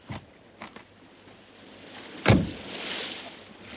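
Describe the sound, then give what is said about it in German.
A few soft clicks and latches of car doors opening, then one loud door slam, followed by quiet shuffling and rustling as people get out of the car at a fisherman's hut on the coast. “Geben Sie mir die Wagenschlüssel, Fuchs. Hier. Aussteigen, ihr Wagen.”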